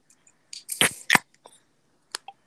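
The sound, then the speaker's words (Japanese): Two sharp, hissing pops of beer cans being cracked open in quick succession for a toast at a year-end party, fairly loud, followed by a few fainter clicks and a brief fizz. “じゃあ、じゃあ、ちょっと、あのー、ラジオなんでね、せめてこのプシュって音だけ。”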